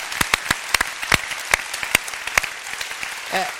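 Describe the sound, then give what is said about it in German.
A crowd of people claps together in praise of God, a dense wash of applause with sharper individual claps popping out irregularly, fairly loud and steady, easing slightly near the end. “Wenn ihr das glaubt, dann klatscht mal.”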